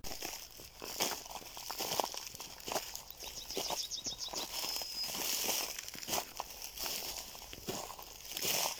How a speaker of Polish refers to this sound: mamy taki problem, że kroki są za głośne.